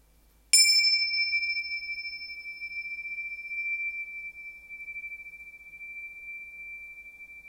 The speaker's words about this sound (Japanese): いかがですか 今日お家に届いたんですこれねティンシャという楽器ですけれどもはいとても素敵なねえー、っとサスティーンですねそうこのね伸びてる音今本当に小さく鳴らしてもすごいね余韻がある